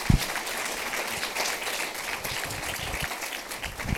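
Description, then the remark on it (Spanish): A church audience bursts into sustained applause for the Lord during a bilingual Spanish-English sermon, a dense wash of many hands clapping steadily for several seconds with a few sharper claps standing out at the start and end. “Dele ese fuerte Give aplauso al that strong Señor.”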